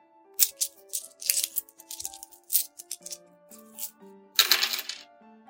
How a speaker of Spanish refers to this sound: Continuó haciendo sonar las monedas en su bolsillo.